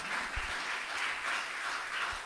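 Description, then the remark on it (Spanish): An audience applauds Christ in a steady, dense wash of clapping that holds at an even level for a couple of seconds, with no voices over it. “Dale un aplauso a Cristo por eso, porque Él está aquí para perdonarnos.”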